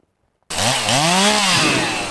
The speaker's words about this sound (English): In a remote community on South Australia's far west coast, a group of young Yalata Anangu men are firing up chainsaws and turning dead wood into a valuable resource.